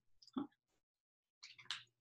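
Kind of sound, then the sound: household object, typing on a keyboard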